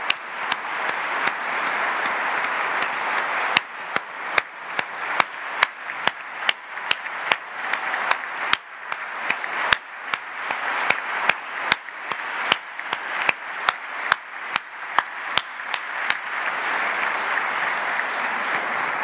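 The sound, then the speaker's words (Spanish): Sustained audience applause offered to Raquel Buenrostro Sánchez and the SAT team, with dense, steady clapping and sharper individual claps cutting through, holding at an even level for nearly twenty seconds with no talking. “Ese es el compromiso que hacemos y agradecer a todo el equipo del SAT eh, de manera muy especial, si les parece, vamos a ofrecerle un aplauso a Raquel Buenrostro Sánchez.”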